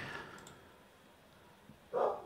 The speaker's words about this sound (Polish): Jeżeli słyszycie w tle e, szczekanie, to mój e, najukochańszy pies Indiana, tak to jest pies o imieniu Indiana, właśnie kłóci się ze swoimi kolegami ze wsi, że są głupki i on ma najlepiej.